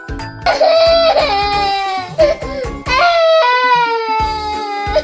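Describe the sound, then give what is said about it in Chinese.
A girl cries loudly on hearing she is to get an injection, letting out two long, high-pitched wails broken by short sobbing catches and gasps between them, with no talking. “一听到要打针，就开始哇哇大哭”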